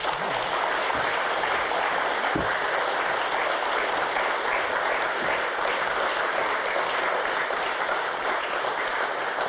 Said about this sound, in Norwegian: Gi en varm applaus.